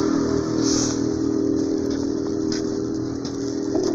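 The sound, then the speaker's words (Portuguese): Loud motorcycle engines rev and roar steadily, a continuous mechanical drone with rising and falling throttle bursts and some clattering street noise, with no one talking. “Motos barulhentas.”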